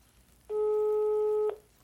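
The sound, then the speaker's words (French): A single steady telephone ringback tone lasting about a second as an outgoing call is placed live on Radio für Null, a loud, flat electronic hum with layered harmonics that starts and stops abruptly, with quiet background before and after. “Okay, jetzt rufen wir sie an, live auf Radio für Null.”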